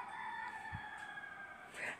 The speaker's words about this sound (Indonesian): maaf banget ya kalau ada ayam ah, maksudku suara ayam